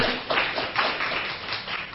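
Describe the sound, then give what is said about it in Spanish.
An audience applauds the Lord, a dense, steady patter of many hands clapping together without a clear rhythm, sustained at moderate loudness for the whole stretch with no voices standing out. “Ah, le damos un aplauso al Señor, aleluya.”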